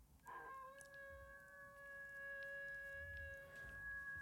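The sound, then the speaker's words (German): A spooky wolf howl sound effect, one long wailing tone held almost unchanged for about four seconds over a faint low rumble, with no one talking. “So, das, ist ein lustiges Wolf Halloween. oder Fliegerlauf aus dem Zweiten Weltkrieg?”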